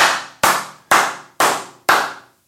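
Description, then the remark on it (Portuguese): Five slow, evenly spaced hand claps, crisp, each with a brief ringing tail, like a lone person giving deliberate applause. No voices. “Palmas!”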